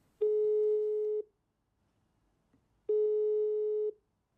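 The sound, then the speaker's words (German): Two long, steady telephone line tones, each about a second, separated by a pause of silence, like a ringback or busy signal heard clearly on a phone line with no voices, as a phone call is being placed. “Die Recherche beginnt mit einem Telefonat.”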